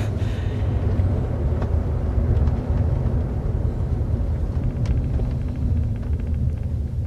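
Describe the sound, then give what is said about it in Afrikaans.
A car engine rumbles low and steady as the vehicle creeps slowly into a parking space, with a few faint clicks and knocks over the hum and no voices. “Daar's 'n parkeerplek. Gou, vat hom.”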